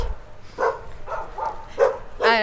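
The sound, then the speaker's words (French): Dogs bark on the right side in a small hamlet of cut-stone houses, in a series of five or so sharp, irregularly spaced barks, moderately loud, the last one longer and more tonal, with no talking. “à, droite, il y a les chiens qui aboient”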